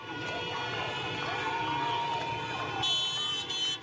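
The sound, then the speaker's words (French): A dense outdoor din of a protest crowd in Iran shouting together, with car horns and siren-like tones blaring through it, steady and loud for the whole stretch. “Au son des cris et des klaxons, le mouvement de contestation propagé dans plusieurs villes ne faiblit pas”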